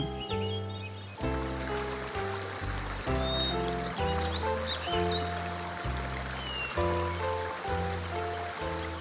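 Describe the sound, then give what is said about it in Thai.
A steady rush of flowing river water runs throughout, with occasional bird chirps, beneath a gentle melodic music track with sustained tones and a slow bass line; no one speaks. “วันหนึ่งเด็กหญิงตาคมไปหาปลาที่แม่น้ำ แต่ยังไม่ทันได้ปลา ก็เห็นขวดใบหนึ่งลอยน้ำมา”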